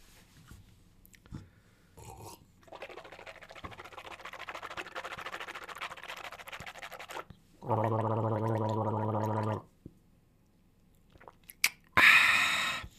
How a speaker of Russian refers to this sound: Это специально для тех, кто не любит, как я сербаю, шмыгаю, чавкаю.